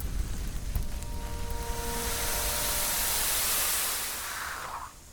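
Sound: water spraying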